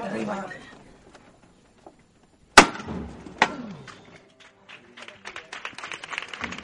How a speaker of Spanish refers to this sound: Al cielo por la hermandad de Loreto, esos ecos del martillazo se escuchaban dentro de, del interior de la parroquia, como si estuvieran anunciando a la Virgen que ya está aquí su hijo,